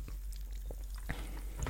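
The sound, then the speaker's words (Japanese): Quiet sipping and swallowing of an ice-cold canned gin soda: a few soft, wet mouth sounds and small gulps spaced apart over a low steady hum, with no talking. “このね、ジンソーダ、キンキンに冷えたジンソーダを飲みながら、えー、話をしていこうかなと思っているところです。”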